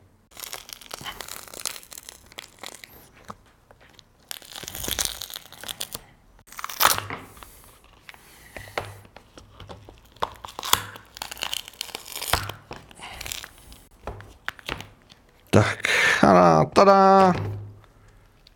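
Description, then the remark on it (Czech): Adhesive tape being peeled off a keyboard with a thread: scattered crackling, tearing bursts build to a loud, sustained rasping squeal of tape pulling free near the end. “Asi by bylo trošku lepší vzít niť a, a odtrhnout tu izolepu nití, což je asi to, co se právě teď pokusím udělat.”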